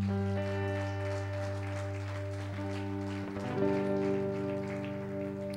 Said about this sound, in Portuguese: Na salva de palmas ao Senhor.